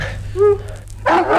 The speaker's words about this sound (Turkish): Aa, bu köpek de nereden çıktı? İmdat! İmdat! Kurtarın beni!